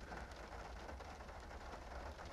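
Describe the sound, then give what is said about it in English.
A steady hiss of rain beginning to fall on a parked Honda car in front of a house, a dense patter of drops running continuously at a fairly soft level, with no voices. “The, the rain is starting, ladies and gentlemen.”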